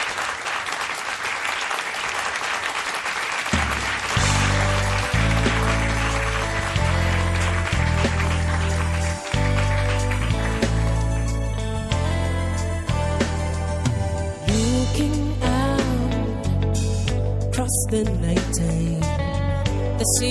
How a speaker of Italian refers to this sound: Sentiamola allora dal vivo … qui a Radio 2 Social Club con ….